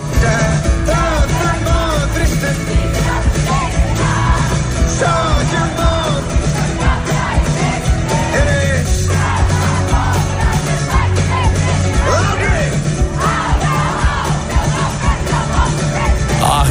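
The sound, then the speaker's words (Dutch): A large concert crowd sings along loudly and steadily, word for word, taking over the song after the singer's voice gave out; a dense wall of many voices carrying a melody together, with bass-heavy music underneath throughout. “Dat iedereen teksties en woord voor woord mee kon brullen...”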